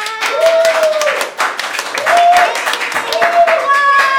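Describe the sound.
An audience applauds steadily for about four seconds, a dense crackle of many hands clapping, with a few rising whoops and voices mixed in over the clapping.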